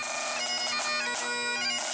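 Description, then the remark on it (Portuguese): Bagpipes play a loud, continuous tune in Scotland, with steady droning notes beneath a shifting reedy melody. The instrument sounds bright, with no voices over it. “É uma gata de Falls! Estamos na Escócia.”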